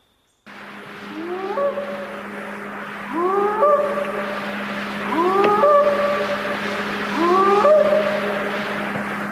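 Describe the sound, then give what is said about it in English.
Four rising, whooping animal-like calls from an unidentified creature in a forest repeat at steady intervals, each a stack of upward-sweeping tones, over a constant low hum and hiss, recorded outdoors. No one speaks. “And then, uh, then they would start making their sounds. And that was in 71 when I first started hearing them, and we started recording them.”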